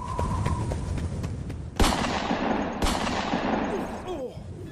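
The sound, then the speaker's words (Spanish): Two loud gunshots ring out about a second apart, each followed by a long echoing decay, over a constant rumbling background noise. “Sonó el disparo.”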